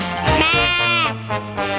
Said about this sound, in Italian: La pecora.